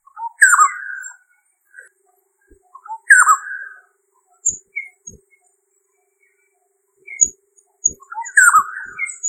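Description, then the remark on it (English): A black-hooded oriole calls alone in three clear bursts, each a harsh, slurred descending note, with short whistled and chipping notes scattered between them. “Known as Pahadi Tokidar Pilak in Lucknow, the black hooded oriole has a similar diet as the golden oriole.”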